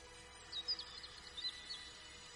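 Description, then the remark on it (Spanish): Faint birdsong: a few short, high chirps and whistles come in scattered bursts over a quiet, hushed background with no voices. “Tras percibir aquellas palabras, el silencio comenzó a dar paso al canto de los pájaros que alborotaban el entorno.”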